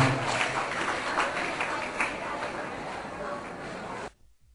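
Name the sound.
children applauding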